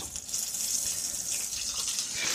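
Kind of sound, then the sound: food or drink, meat sizzling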